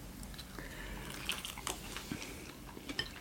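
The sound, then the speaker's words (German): Someone bites into a nugget eaten by hand and chews it, with soft crunchy clicks and moist squishing in an uneven rhythm over a low background hum; no one speaks. “sondern vielleicht einmal so reinbeißen, ohne.”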